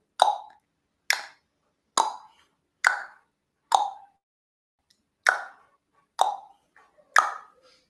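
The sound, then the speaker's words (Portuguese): Eight crisp tongue pops, made as a vocal exercise to loosen the tongue, spaced about a second apart with one slightly longer pause midway, each a short hollow plop with no talking between them. “feito esse exercício, que eu posso fazer umas duas, três vezes, eu também posso fazer um exercício para soltar a língua fazendo isso aqui, ó.”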